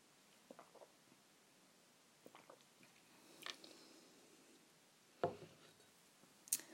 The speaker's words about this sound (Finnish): Niin nyt mä hörppään tätä teetä, mikä on ehkä jo ihan kylmää.